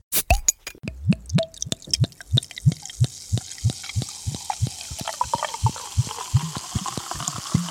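A drink glugs steadily from a bottle into a cup, a quick regular series of hollow plops that continues for several seconds, with no one talking.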